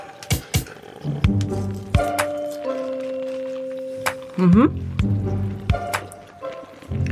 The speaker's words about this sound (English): Can you chew closer to the microphone?